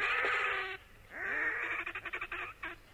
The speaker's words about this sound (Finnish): No se, tämä, siis tähän päätyy aina kesällä, kun tekee saunan jälkeen tikkumakkaraa, niin sieltä kuuluu tämä Härkälin työn kutsuääni, missä on poikaset ja emot eri paikoissa.